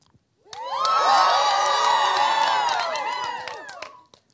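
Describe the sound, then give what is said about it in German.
An audience, asked by the speaker to cheer, erupts in loud, sustained cheering, high excited voices and whoops blending together for about three and a half seconds before tapering off, with a few scattered claps. “Könnt ihr mal kurz jubeln?”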